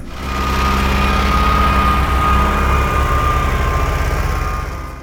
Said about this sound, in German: Die haben ihre Traktoren mitgebracht und es wurde gepflügt.